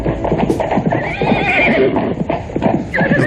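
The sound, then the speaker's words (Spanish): A horse whinnies loudly in a long, wavering cry while hooves pound in a rapid, steady galloping rhythm, with no voices present. “En aquellas fechas de diciembre de 1809, casi muere galopando con el vientre deformado a punto de reventar y sin exhalar ni una sola queja a pesar del dolor.”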